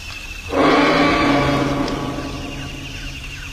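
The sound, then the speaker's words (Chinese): A tyrannosaurus roar bursts in after a half-second lull, a loud, harsh, deep growling bellow that holds for about three seconds before slowly trailing off. No one speaks. “恐怖的庞然大物霸王龙掀翻了汽车，吃掉了律师。”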